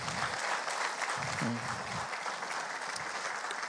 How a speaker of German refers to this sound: Können wir einen Applaus geben?